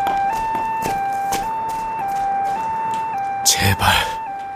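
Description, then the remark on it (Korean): Ambulance and police car sirens blare in a steady, alternating two-tone pattern at an apartment complex late at night in mid-August, loud throughout, with a couple of brief noisy bursts near the end. “아, 구급차도 있고 경찰차도 온 것 같은데요?”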